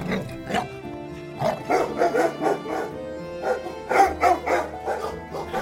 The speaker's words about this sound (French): Leur père posta un chien roux devant la grande barrière en bois qui marquait l'entrée du village pour qu'il aboie quand les fillettes se tenaient trop près.